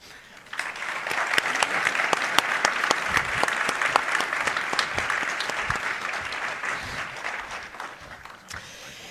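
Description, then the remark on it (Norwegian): Audience applause welcoming Gunnar Stavrum, editor-in-chief and CEO of Nettavisen, rises quickly and holds steady for several seconds, a dense crackle of many hands clapping at moderate loudness, then tapers off slightly at the end. No one speaks over it. “Ta godt imot sjefredaktør, administrerende direktør i Nettavisen, Gunnar Stavrum.”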